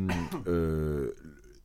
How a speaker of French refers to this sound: Hein, tu vas roter après.